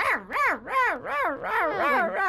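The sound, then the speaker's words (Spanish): Three small Pomeranian dogs yap in a fast, continuous run of high, wavering barks, roughly two per second, loud with no pauses between them. “Son tres Promeranians y ah, ladran dan todo así.”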